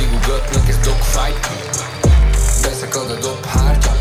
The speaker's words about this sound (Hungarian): Ti hallottátok amúgy? Itt megy valami soundcheck, nem?